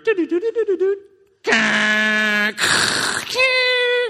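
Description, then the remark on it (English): A person vocally imitates a dial-up modem connecting to get online, as when going on AOL to check email: quick chirps, then loud sustained screeching tones, a burst of hissing static, and a final held tone. “That was a good impression of a modem.”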